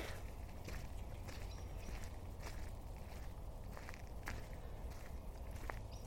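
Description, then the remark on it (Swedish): Steady footsteps crunch along at an even walking pace through a forest at night, with soft rustling underfoot over a constant low outdoor rumble. No voices, and the setting otherwise sounds quiet. “Då går jag vidare.”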